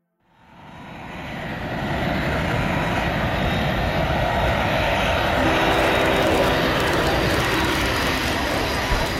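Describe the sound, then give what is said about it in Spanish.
A steady, loud aircraft engine roar rises within the first two seconds and holds as a dense, continuous rumble with a faint high whine, like a plane cabin during landing. “Marilena los recibió cuando aterrizamos finalmente en la tierra.”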